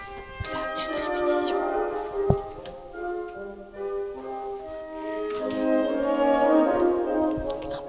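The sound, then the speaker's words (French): A small brass ensemble at Radio France plays sustained, harmonically rich notes that shift in pitch, with one sharp knock partway through and the music swelling again toward the end. “petit ensemble de cuivre.”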